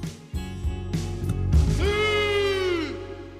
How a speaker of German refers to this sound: Ich habe natürlich wieder einmal den Adler gehört, der über den, ja. über den Bergen.